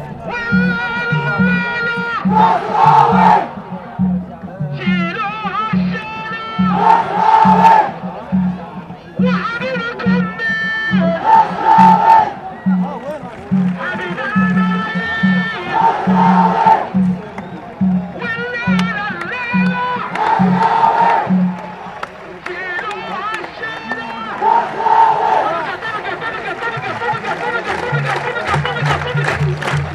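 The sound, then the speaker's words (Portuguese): A large football crowd at the Dubai derby between Al Nasser and Al Ali in the United Arab Emirates chants in loud rhythmic waves over a steady drumbeat, voices swelling together in repeated phrases, with cheering building toward the end. “Estes sons, do derby do Dubai entre o Al Nasser e o Al Ali, são coisa rara de encontrar.”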